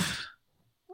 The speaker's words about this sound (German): Ah. Gesundheit.